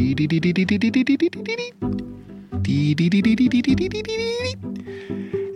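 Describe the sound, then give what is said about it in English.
A human voice imitates a prairie warbler's ascending song, a quick series of buzzy notes rising steadily in pitch, sung twice in close, loud succession with a brief pause between. “And and there it was, this this prairie warbler, and it stopped me in my in my tracks.”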